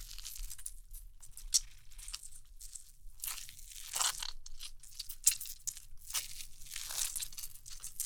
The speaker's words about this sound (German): Genau, das ist so wichtig, dass man so einen konstanten Sound hat, weil sie nicht immer so macht, so schnipp, sondern sie zieht wirklich sehr langsam die Klinge.